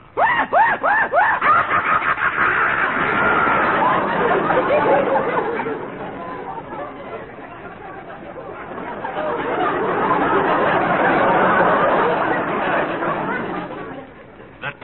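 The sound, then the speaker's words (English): A voice imitates a hyena's manic screeching cackle, rising in loud, rapid, chattering bursts that swell, dip in the middle, then surge again before cutting off. “The maniacal screech of the hyena.”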